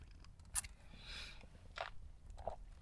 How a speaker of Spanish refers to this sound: Pausa para trago de café.